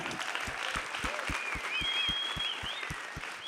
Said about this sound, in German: Yay, da kann man nochmal klatschen, gell?